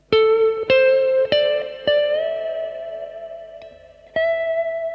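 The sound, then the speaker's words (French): Electric guitar notes, several picked in quick succession, then a long sustained note that bends up in pitch and wavers with vibrato before a final fresh attack. Effected tone, no talking. “Et après, comment je vais vibrer en fait Est-ce que je vais.”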